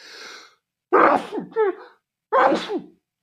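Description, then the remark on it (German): A quick breathy inhale, then two loud sneezes about a second and a half apart, each an explosive burst trailing into a brief voiced tail, with nobody speaking. “wenn ihr merkt, ihr müsst niesen und dann den Satz noch schnell fertig bringen müsst?”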